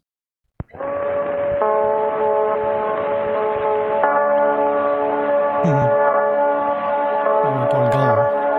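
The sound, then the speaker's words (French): An OP-Z synthesizer, a small blue box with round buttons, played through an effects module into a small tape recorder: a loud, sustained bell-like chord with layered overtones that shifts a few times, joined later by low, wobbling gliding notes. No talking. “ça, c'est un OPZ, je crois, euh, qui passe dans un module euh, de d'effet, je pense qu'il va y avoir de l'Eventide ou quelque chose comme ça, et derrière qui va dans un euh, magnétophone.”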